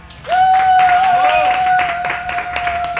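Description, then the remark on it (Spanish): Audience applause: a dense run of sharp, loud claps, with a steady high-pitched whistle held through most of it and a brief whoop rising over the clapping. “¿Y habéis notado, por favor, al otro lado del auricular, la calidad de estos aplausos, por favor?”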